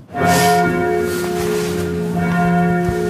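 A loud church tower bell strikes the hour, its rich ringing tones sustaining and overlapping as a second strike sounds about two seconds later, with a faint hiss beneath.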